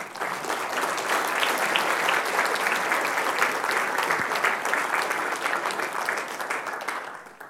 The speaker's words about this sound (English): Why don't we give them a round of applause as they come up?